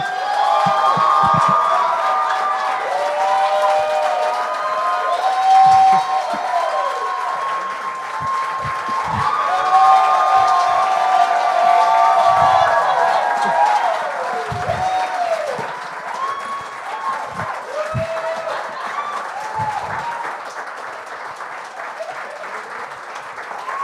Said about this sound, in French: Angelo, tu viens officiellement d'avoir la plus longue clap du bordel. Il va être long, ce show-là.